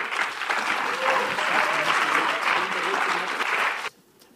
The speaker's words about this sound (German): Geben wir doch einen grossen Applaus für den Manu Brun und den Joel Ming.